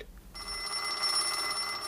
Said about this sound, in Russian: и опять этот треклятый телефон. За последний час ему уже дважды приходилось отвлекаться.